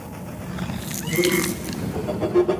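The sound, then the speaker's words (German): A deafening, rough creature roar from the air overhead, as it dives down toward a bus, rumbles continuously for a couple of seconds, harsh and growling with a gritty, noisy texture and swelling intensity, heard without any talking. “dieses Gebrüll, welches ohrenbetäubend ist und ein so ein, ein Sturzflug äh, donnert irgendeine Soße über euch nieder auf den mhm.”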